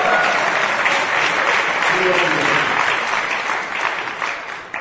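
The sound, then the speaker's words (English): A crowd applauds steadily, dense overlapping claps forming a loud, continuous wash that holds for several seconds before easing off slightly at the end. “Okay, now you can clap.”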